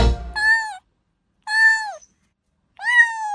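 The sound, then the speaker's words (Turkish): A cat meows three times, each call a drawn-out, slightly falling tone with clear pauses between them, fairly loud, following a brief low rumble at the start. “Bugün Dünya Kediler Günü.”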